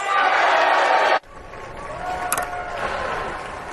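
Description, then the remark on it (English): A crowd of legislators erupts in loud, sustained cheering and applause after the Build Back Better bill passes 220 to 213 on a Friday, cut off abruptly after about a second, then resuming as a steady, slightly softer roar of cheers and clapping. “Yeah, so, and then they go on and cheer and cheer and cheer.”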